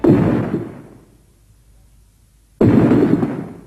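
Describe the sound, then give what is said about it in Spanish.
Two massive, thundering footsteps of the giant monster in the film Shin Godzilla, each a heavy booming thud with a long rumbling decay, separated by a couple of seconds of near silence. “Esos pasos.”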